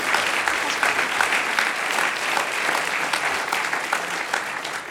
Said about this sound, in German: Merci viel, vielmals. Geben wir denen noch Applaus. Merci vielmals.